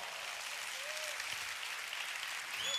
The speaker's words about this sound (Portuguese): se for para aplaudir, aplaude forte.